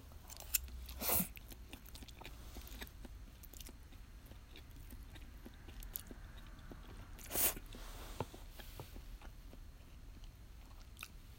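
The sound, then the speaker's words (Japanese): Wet chewing and biting sounds of someone eating tarako (cod roe) pasta, with soft mouth clicks, plus two louder sharp crunchy bursts standing out against a steady low background, no talking. “咀嚼音注意 たらこパスタ食べながら話す”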